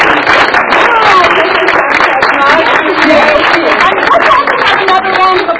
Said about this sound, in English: please join me in giving a big round of applause